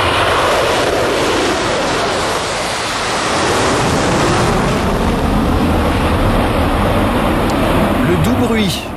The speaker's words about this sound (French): du décollage d'un Concorde. Cet avion mythique dont le dernier vol a eu lieu il y a tout juste 20 ans, ce fleuron de l'aéronautique conçu entre la France et le Royaume-Uni pouvait relier Paris à New York en 3 et demie.